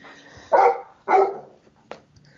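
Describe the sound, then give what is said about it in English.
A Labrador barks twice in quick succession, loud, each bark a full, deep woof, followed by a brief softer sound afterward. “Lab, we got a Labrador attack.”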